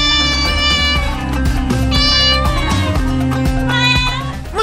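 A cat meows a couple of times, its cries rising and bending in pitch, layered over steady background music at a fairly loud level. No one speaks.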